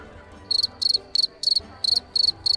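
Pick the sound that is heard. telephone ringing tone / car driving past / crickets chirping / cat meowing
crickets chirping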